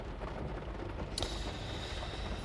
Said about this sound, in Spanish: Bueno, pues no sé si lo estaréis captando ahora, escuchando, lo, lo captarán los micrófonos, pero ha empezado a llover aquí dentro del coche donde estoy grabando, así que quizás escuchéis ahí de fondo los pequeños toques del agua en contacto con la